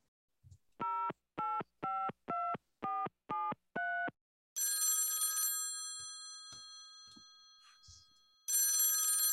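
A quick run of seven evenly spaced dialing beeps, then a loud, steady outgoing ringing tone that stops after a couple of seconds and starts again, heard clearly on the line, as a phone call is placed and not yet answered.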